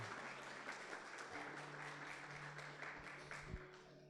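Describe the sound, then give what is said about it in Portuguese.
An audience applauds God together, a dense, steady wash of many hands clapping at a constant loudness for about four seconds, with a faint low sustained tone running underneath. “Uma salva de palmas para o nosso Deus.”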